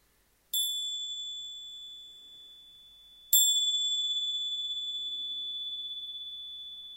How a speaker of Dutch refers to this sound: Zo mag jij langzaam gaan voorbereiden om zo op je eigen tempo terug te komen als ik het belletje laat horen, zodat jij de rest van het ritueel kunt gaan uitvoeren in jouw rust.